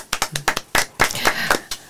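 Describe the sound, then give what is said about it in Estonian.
Brief, lively applause from a small group for the winner of a prize draw on a show: sharp hand claps in a quick, slightly uneven rhythm, growing denser and overlapping toward the middle before trailing off after about two seconds. “aplaus!”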